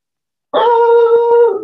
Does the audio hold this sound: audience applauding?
no